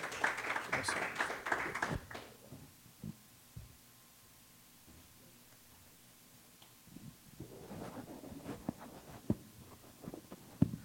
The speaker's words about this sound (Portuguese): Que a igreja o receba com uma calorosa salva de palmas para Cristo. Amém.